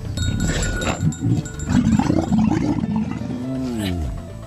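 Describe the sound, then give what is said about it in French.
A dromedary camel grunts and groans in a low, rough, gurgling voice, with a continuous run of growls ending in a drawn-out moan that bends downward in pitch. “Enfin, dans le sud du pays, on peut se déplacer à dos de dromadaire.”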